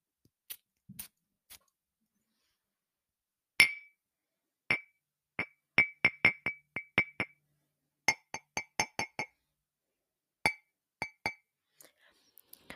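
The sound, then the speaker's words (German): Glass perfume bottles are tapped together in a series of sharp, bright clinks, some single and some in quick rhythmic runs, clear with pauses between bursts and no talking. “Jetzt nehme ich mal mein anderes Parfüm und klopfe es an mein anderes Parfüm.”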